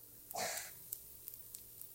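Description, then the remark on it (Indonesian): A brief, breathy squirt of thin sweet Cirebon soy sauce onto fried rice, moderately loud, lasting under half a second, followed by a few faint clicks; no one speaks. “ya itu suara kecap ya.”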